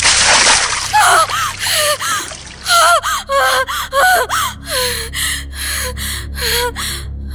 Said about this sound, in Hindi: और आखिरकार जब मैं उस पर बाल्टी भर के पानी डालता तब जाकर वो अपने सपने से जागती